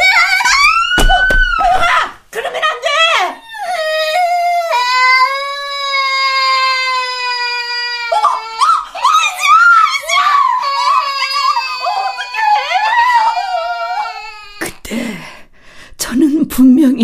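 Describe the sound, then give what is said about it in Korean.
A few thumps of a young girl falling from a playground slide after being pushed, then a loud, high-pitched wailing scream that stretches on and breaks into sobbing cries, with no other voices. “아이가 떨어졌는데도 아무렇지도 않게 미끄럼틀을 타고 내려오는 호영이를 말이에요. 아이는 자지러지게 울고”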